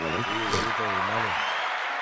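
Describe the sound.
A crowd applauds steadily for about two seconds, a dense wash of clapping with a man's voice speaking loudly over it before the voice drops away.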